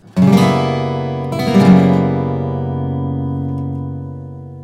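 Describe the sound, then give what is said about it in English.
A guitar chord, an F sharp 7 barre chord with the open B and E strings on top and the fourth finger moved up one fret to add a flat nine, is strummed twice, the second strum about a second later, then left to ring and slowly fade. No one speaks. “Now you take your fourth finger and move it up one fret to create the flat nine sound.”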